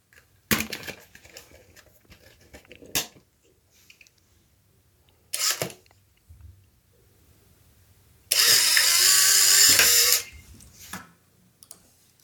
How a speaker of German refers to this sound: Das haben wir gerade gehört. Es ist meine Polaroid SX70 Model 2.